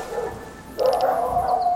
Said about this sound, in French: Chut Vous entendez ces aboiements les sangliers se figent. Ils font silence tous en même temps.